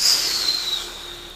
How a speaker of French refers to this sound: la porte claque. Laissant entrer un sifflet de vent